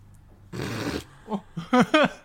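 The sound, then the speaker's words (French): An angry dog snarls with a rough, noisy growl, then lets out a few short, sharp barks in quick succession, with no talking. “Il est en colère le chien.”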